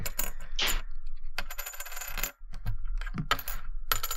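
A metal sobriety coin is dropped and clinks repeatedly against a hard surface, with bright ringing taps and short rattles in an irregular series and no voices.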